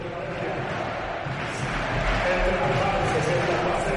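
A packed basketball arena's crowd roars and murmurs in a dense, continuous wash of voices, swelling a little louder partway through, with no single voice standing out, in a hot arena during a game against Palencia, with la Penya leading by 10 at 50-60.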